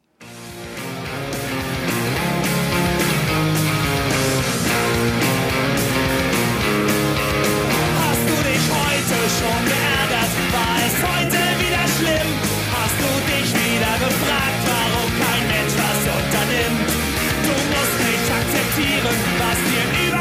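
A loud, energetic punk rock song plays continuously with driving drums, distorted guitars and shouted vocals, fading in quickly at the start and staying dense and full throughout.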